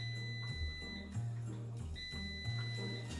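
An air fryer beeps with high, piercing electronic tones in repeated stretches, sounding over a steady low mechanical hum that shifts in pitch now and then. No one speaks.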